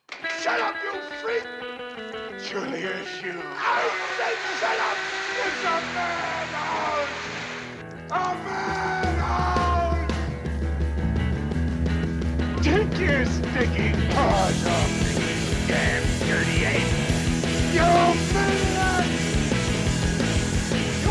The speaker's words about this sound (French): donc, on va prendre une petite respiration et écouter le générique.